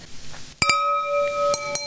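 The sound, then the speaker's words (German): Cheap drinking glasses clink together in a toast: two quick bright taps, then two more, each leaving a clear ringing tone that hangs in the air. Fairly loud, with no voices. “Ich habe heute die Low-Budget-Version von Glas, deswegen hört sich das bei mir nicht so elegant an wie bei euch.”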